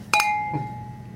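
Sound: beer glasses clinking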